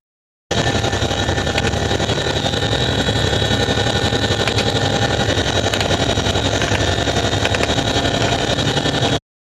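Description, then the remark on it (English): Loud, steady roar of a Chinook helicopter's engines and rotors, recorded on a helmet camera, fills the whole recording, with a few sharp, brief cracks of passing bullets, assessed as PKM machine-gun fire, cutting through the drone. No one speaks. “Those are bullets passing by the Chinook.”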